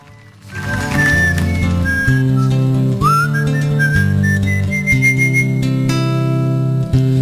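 A recorded song opens with a bright, whistle-like melody gliding over sustained bass notes and chords, loud and steady throughout, with no voices yet.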